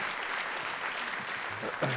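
An audience claps steadily for a performer after a musical number, a dense wash of many hands with no clear pauses, and a few brief vocal sounds rise out of it near the end.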